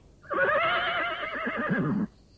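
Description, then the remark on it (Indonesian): A horse neighs in one long, loud whinny lasting nearly two seconds, its wavering tone rising and trembling before cutting off. No voices are heard. “Ah, iya, kita harus meninggalkan kuda ini”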